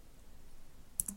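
The Tab key is pressed on a computer keyboard: two quick, crisp clicks after a second of near silence, then a louder, sharper burst of sound right at the end.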